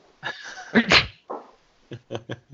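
A single loud, close sneeze bursts out after a quick breathy intake, followed by a few short, soft breathy sounds trailing off.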